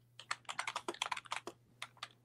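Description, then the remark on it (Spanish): Rapid clicking of keys on a computer keyboard, a quick burst of many crisp taps with brief pauses, over a low steady hum. “ya ese teclado, Ariel. Más rapidez.”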